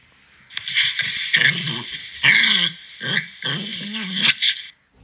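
A dog growls and snarls in a run of about five rough, excited bursts with short gaps, fairly loud, with no voices, while tugging at something like a rope during play with another dog.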